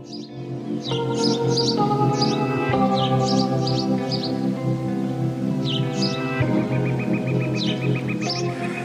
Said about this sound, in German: Man hört, wie Vögel zwitschern und … singt auf eine Weise, die fast schon meditativ ist.